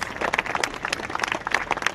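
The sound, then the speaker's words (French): A crowd applauds SNSM sea rescuers walking hand in hand along the route of a procession, dense overlapping hand claps forming a continuous bright patter with occasional sharper individual claps standing out, no voices. “Des sauveteurs en mer, main dans la main, unis dans la douleur et applaudis tout au long du parcours.”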